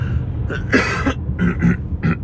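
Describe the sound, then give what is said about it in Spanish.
A burst of harsh coughing: one longer rasping cough followed by a quick series of three shorter ones, loud, with no talking. “Entre el cinturón y la tos.”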